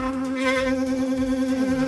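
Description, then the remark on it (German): An electric toothbrush buzzes steadily for the full two seconds while being used to brush teeth, a loud, constant whine with a strong low hum and bright overtones, with no talking over it. “Ja, also ich habe die Zahnbürste jetzt mal wieder ausgemacht, damit das nicht so stört vom, vom äh, Geräuschpegel her.”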